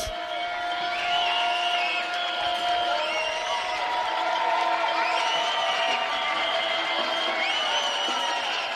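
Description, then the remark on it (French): A crowd claps and cheers steadily for the whole stretch, with shouts, whoops and sustained whistle-like tones rising over the dense, continuous wash of noise: the evening applause at 8 p.m. for hospital health workers during Covid, in France. “Et les applaudissements le soir à 20h, honnêtement tu aimes et du coup, les applaudissements, bah, je vais peut-être euh, te décevoir, mais j'ai pas trop aimé en fait.”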